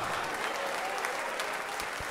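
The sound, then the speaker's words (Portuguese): A crowd of many people claps steadily in applause to the name of Jesus, the dense applause sustained and fairly loud throughout, with no gaps or single claps standing out. “Vem para cá, está chegando mais, vamos aplaudir mais ao nome de Jesus.”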